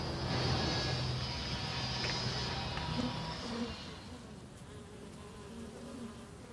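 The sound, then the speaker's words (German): A dense, steady buzz of many honeybees around hives kept at a library, loud and continuous, thinning out slightly toward the end as the hum fades into quieter background. “sie sind sehr fleißig hier, die Bienen”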